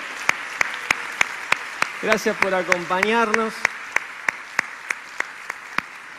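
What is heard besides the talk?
audience applauding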